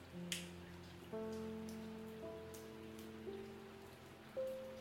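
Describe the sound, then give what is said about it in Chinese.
Soft, steady patter of light rain, a faint hiss with occasional small drip sounds, beneath quiet sustained musical notes that change every second or so. No one speaks. “在小小的雨声中，瑟缩不宁。”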